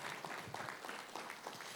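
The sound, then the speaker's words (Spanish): An audience breaks into steady applause to the Lord, a dense wash of many hands clapping at once, holding at an even loudness for the whole moment without letting up. “Un aplauso al Señor.”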